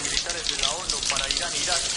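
A young man turns the shower water back on: it runs in a steady, dense hiss that stays loud and even for the whole two seconds, with faint voice-like tones rising and falling underneath.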